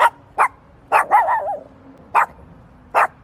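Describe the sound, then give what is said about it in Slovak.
A dog barks sharply several times at irregular intervals, with a drawn-out whining yelp early on. The barks are loud and clear, with quiet pauses between them and no talking. “Mojho dnešného hostia by som mal asi pozdraviť nejako takto.”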